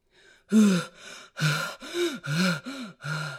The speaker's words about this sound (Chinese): 老狼扛呀！推呀，拖呀，累得气喘吁吁，汗流浃背。